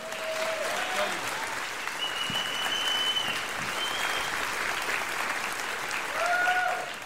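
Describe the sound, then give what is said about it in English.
A large crowd at Harvest Church claps steadily and loudly for several seconds to welcome guest speaker Reggie Dabbs, a dense wash of applause with a few whistles and cheers rising through it. “Would you help me to give our Harvest Church welcome to Reggie Dabbs?”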